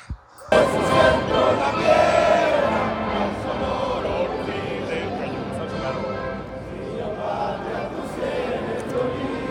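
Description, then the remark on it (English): A large crowd roars and chants together at a live event, a dense, sustained wall of voices that bursts in loudly after a brief quiet start and stays energetic throughout. “I'm just out here bringing you a few of the sounds from around this uh, this crazy event. It's so cool, all the different chants, cheers”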